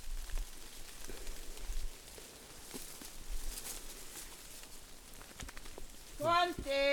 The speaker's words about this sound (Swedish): nu regnar det.